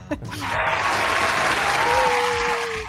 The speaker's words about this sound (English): You want some applause, Jag? You deserve it.